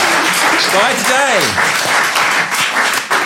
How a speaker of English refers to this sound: And the round of applause